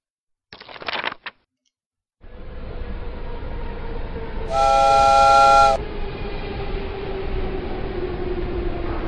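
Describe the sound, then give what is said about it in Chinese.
A train arrives and clanks to a stop: a short burst of clattering, a brief pause, then a steady, loud train rumble. Partway through, a single sustained, high-pitched steam whistle blast, like a sigh, sounds over the rumble, which continues after it. “火车终于来了，它“哀”的发出了一声好像叹气的声音，咣当一下停了下来。”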